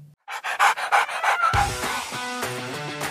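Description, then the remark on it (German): A dog named Alka pants in quick, rhythmic breathy bursts for about a second, then music with steady tones takes over while the breathing fades underneath. “Bis dahin bleibt fröhlich und ein Wuff von meiner Alka.”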